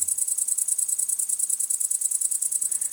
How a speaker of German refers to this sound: Das Besondere daran, es werden nicht nur die wichtigsten Heuschrecken Wiens in Wort und Bild vorgestellt, über einen QR-Code können per Smartphone auch die Gesänge dieser Heuschrecken abgehört werden.